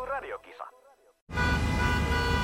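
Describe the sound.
A brief voice is followed by a short silence, then loud, close traffic noise breaks in: sustained car horns honk continuously over a dense rumble of idling engines.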